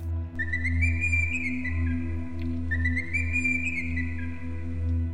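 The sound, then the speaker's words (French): Two whistles, one after the other, each lasting over a second with a slight rise in pitch, sounding over a steady low droning hum, whistled by a spider to call her baby spiders in a cave. No one speaks. “Arachné siffla deux coups.”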